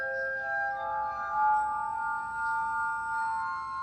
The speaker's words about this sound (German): Hier erfährt man auch, dass Glas nicht nur schön aussieht, sondern auch klingen kann, wie beispielsweise mit dieser Glasorgel oder dass Kristallglas einen satteren Klang hat als normales Glas.